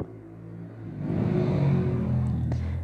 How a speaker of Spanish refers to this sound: oigan, la moto.